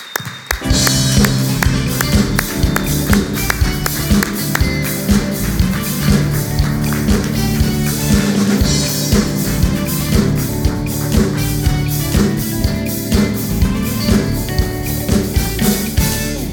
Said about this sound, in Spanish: quiero que lo recibamos hoy con un fuerte aplauso a mi amigo Ricardo Sala